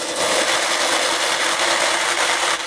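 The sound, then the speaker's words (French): A jar of sugared peanuts being twisted open for ASMR, producing a steady, gritty scraping rasp that lasts a few seconds, loud, with no voices. “Ça, c'est le bruit du pot.”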